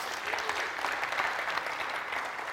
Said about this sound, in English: Give her a round of applause in coordinating our